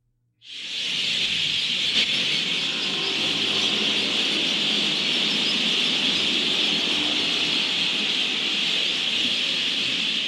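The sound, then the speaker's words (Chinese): A huge flock of mynas calling at once, their chatter merging into a loud, unbroken high-pitched hiss that starts abruptly and holds steady throughout, with no voices. “啊，阿妈，我没办法看书，没办法背书，因为那个小鸟的声音太大了，比家里的电视还大。”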